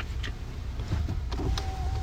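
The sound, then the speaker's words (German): A car's electric window motor whirs steadily as the glass slides down, set against a low engine-like rumble inside the vehicle, with a faint rising whine toward the end. “Erstmal muss ich das Fenster runter machen, weil es mir ein bisschen zu warm ist im Auto.”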